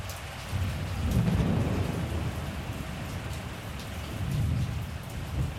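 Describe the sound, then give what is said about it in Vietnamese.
Steady rain hisses throughout while deep thunder rumbles roll in twice, swelling near the start and again toward the end, with no voices. “Đột nhiên, bầu trời phía tây lóe sáng và những tia sét đánh mạnh vào cột nhà thờ nhiều lần.”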